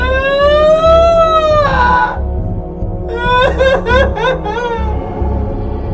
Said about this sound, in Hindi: थोड़ी देर बाद उस औरत के रोने की आवाज सुनाई दी